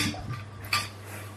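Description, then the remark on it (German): Dishes and cutlery clink briefly, with one sharper bright clatter partway through, set against a low steady hum and soft background noise. “Wir müssen das ja nachher von Hand spülen. Dann soll man ja nicht so viel Geschirr verwenden.”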